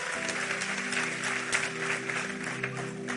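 An audience applauds steadily for about three seconds, a dense wash of clapping with a sustained low hum underneath and a few louder claps standing out.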